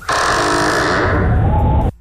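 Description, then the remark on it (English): A loud, drawn-out creak of a door swinging open, one continuous groaning tone that slowly shifts in pitch for nearly two seconds before stopping abruptly. No voices are heard. “I've got the door. I've got it oh. op- uh, opening.”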